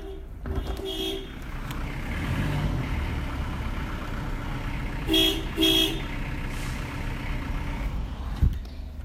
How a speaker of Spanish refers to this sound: Había uno tocando bocina y ahora se cayó. Mira, te voy a, voy a sacar afuera esto así lo escuchar. Mira.